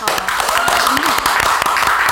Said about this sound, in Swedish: Applåd.